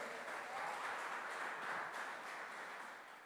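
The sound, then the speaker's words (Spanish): A crowd applauds steadily, a dense wash of many hands clapping at once, fairly loud and even throughout before tapering slightly at the end. “Y un hombre que me pueda decir amén, aplaudir, gritar, diga, eso es conmigo.”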